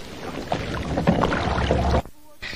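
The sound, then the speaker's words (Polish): A yellow submarine travels along a street through water with a steady bubbling rumble. The rumble cuts off near the end, giving way to a brief low hum before the wash returns. “Pierwszy raz płynęłam łodzią po ulicy. No bo to podwodna łódź, żółta.”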